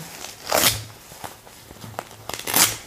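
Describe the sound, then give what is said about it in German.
Soft fabric rustling and crinkling of a cloth diaper with an insert, with two louder bursts of handling noise as the material is squeezed and moved, plus a few small clicks in between. “Das ist ein schönes Geräusch fürs Mikro, ne?”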